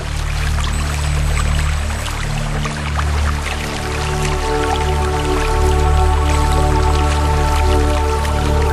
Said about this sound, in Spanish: Eso que usted escucha tan relajante son las aguas del río Bogotá.